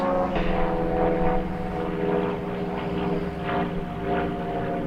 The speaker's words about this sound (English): There's a an airplane flying here. Yeah, I'll just wait a second.